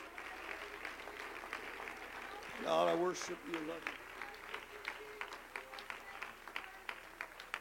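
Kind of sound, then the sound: crowd, audience clapping hands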